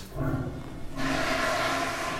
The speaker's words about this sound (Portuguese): Que isso? Alguém acabou de dar descarga em alguma coisa.